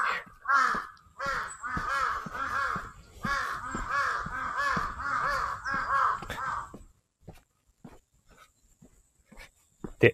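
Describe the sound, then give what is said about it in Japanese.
Several crows caw loudly in rapid, overlapping bursts for about seven seconds while fighting a fox, harsh, then the calls stop, leaving a few faint clicks and scattered sharp noises. “そしてカラスとキツネが戦っております。”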